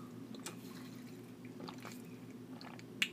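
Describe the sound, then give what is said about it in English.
Wet gulps and swallows as someone drinks water from a new Hydro Flask insulated bottle, a few soft squishy sips spread over a low hum, ending with a sharp little click. “I need a drink of water. Let's do it. Out of my new hydro flask.”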